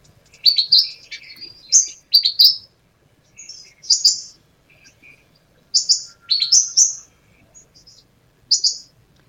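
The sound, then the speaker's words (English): Brown gerygone song: bright, high, sweet twittering phrases repeated in short bursts with brief pauses, clear, no voices. “So let's have a little listen to what they sound like.”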